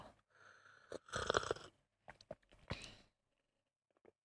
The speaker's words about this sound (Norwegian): Skal vi prøve å slurpe det samtidig, og så se hva anmeldelsen er? Skal vi cuppe teen? Jeg kan cuppe teen. Klar, ferdig, gå.